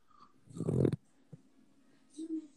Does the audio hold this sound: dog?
yes